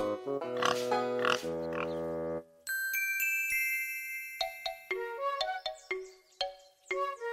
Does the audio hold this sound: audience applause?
no